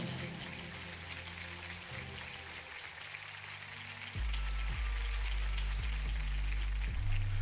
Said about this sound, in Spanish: Órale, la ovación fue larga para una amiga que ya nos ha acompañado en ocasiones anteriores.